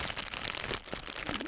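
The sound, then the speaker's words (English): A thick reusable plastic bag, partially made from recycled materials, crinkles in a steady stream of dense crackling and rustling with a few sharper crunches, no voices. “stores now must charge you 10 cents for what they call a reusable plastic bag”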